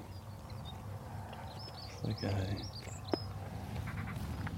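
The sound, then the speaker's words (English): Linnets twitter close by in quick, scattered chirps and trills over a steady low outdoor rumble, while a man speaks briefly partway through. “A couple of linnets just nearby.”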